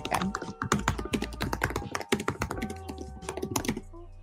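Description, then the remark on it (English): Rapid, irregular clatter of computer keyboard typing, fairly loud, with dense bursts of key taps running throughout over a faint background hum. “i am getting typing noises”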